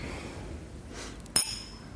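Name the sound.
glasses clinking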